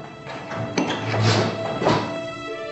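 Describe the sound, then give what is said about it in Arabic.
A door swings shut, with a couple of soft knocks and a latch-like clunk over a steady low hum. “هات المحبرة دي واقفل الباب”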